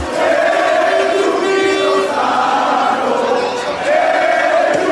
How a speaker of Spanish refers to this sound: Ay, qué feo se oye. mucho ruido. ¿Eh? La gente está gritando mucho.